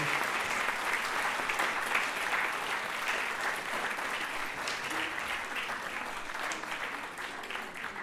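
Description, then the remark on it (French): An audience applauds steadily for about eight seconds, a dense, even wash of many hands clapping that stays strong throughout and eases slightly toward the end. “je crois qu'on peut les applaudir déjà, tout simplement.”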